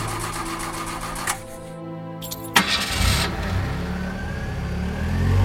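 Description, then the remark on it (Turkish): An old car engine cranks with a rapid mechanical chatter in very cold weather, stalls briefly, then catches with a loud burst and settles into a rough, rumbling idle. “Hava o kadar soğumuştu ki bizim emektarı güçlükle çalıştırdım.”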